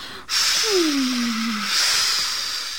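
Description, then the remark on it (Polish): A voice imitates the rustling of a birch tree: one long, steady, breathy shushing hiss lasting over two seconds, with a faint falling hum underneath and no other talking. “Będę panu szumiała, jak umiem najpiękniej i w moim cieniu i szumie będzie pan spokojnie ogryzał kości, jak, jak najprawdziwsza suka.”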